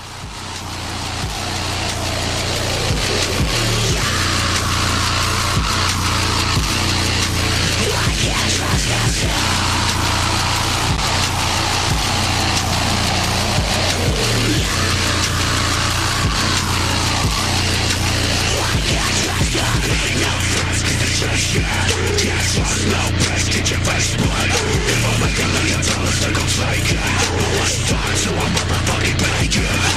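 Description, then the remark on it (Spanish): A loud, dense wall of distorted guitars drives a post-hardcore song, harsh and saturated from start to finish with no talking, the noisy roar sustained at full volume throughout. “te vamos a hacer escuchar eh, It's …, se llama el loco. Y la, y, la, y la, canción se llama …”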